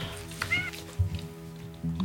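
A cat gives a short, high meow over a low background hum. A second, fainter cry follows near the end.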